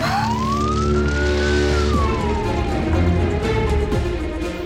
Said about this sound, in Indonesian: Dari arah jalan besar, muncul truk pemadam kebakaran yang membantu memadamkan api di dekat sekolah. Truk tersebut menyemburkan air ke arah pembakaran.